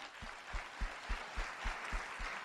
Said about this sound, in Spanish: para que pida un fuerte aplauso.